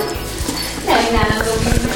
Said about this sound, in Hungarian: És akkor ezen kívül pergők vannak még, csengők, amik segítik a kutyát követni